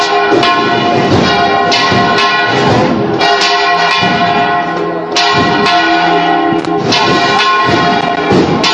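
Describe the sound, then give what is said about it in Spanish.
Church bells peal loudly and continuously at half past ten in the morning in San Ildefonso during a procession, overlapping rings clanging in an irregular, energetic cascade with rich ringing overtones, dominant throughout. “coincidiendo con el repicaz de las campanas cuando son las diez y media de la mañana.”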